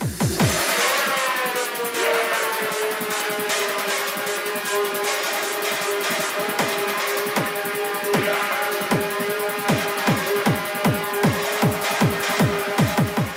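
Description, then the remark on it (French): A pounding electronic club dance track with a steady four-on-the-floor kick, a sustained buzzing synth line and dense bright textures, playing loud and continuous with no voices. “Je vous propose d'écouter encore un petit peu cette musique et de danser.”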